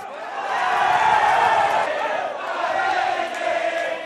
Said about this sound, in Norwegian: Mannen det jubles for, er Prabovo Subianto.